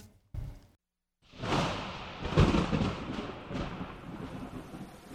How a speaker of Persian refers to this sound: هوا به تاریکی رنگ باخته و باران بر سر شهر میریخت